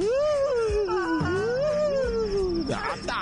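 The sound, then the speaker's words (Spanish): A voice imitates a woman's long, wavering wail, one sustained moaning cry rising and falling in pitch for nearly three seconds, fairly loud, then breaking off into a short breathy sound. “Un chillido de una mujer que suspiraba y le hacía”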